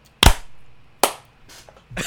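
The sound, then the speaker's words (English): Hand claps on a count of one, two, three, made as a sync mark for a recording: a sharp, loud hand clap, then a second clap about a second later, followed by softer, ragged claps that don't land together. No talking. “So I think one, two, three, clap, just so it gives Justin something to mark up to.”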